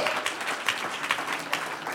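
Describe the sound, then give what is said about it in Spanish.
Thin, scattered applause from a small number of people, a steady patter of claps with occasional louder hits, fairly quiet overall and without voices. “Si ¿Sí ve, unos aplauden, otros no aplauden.”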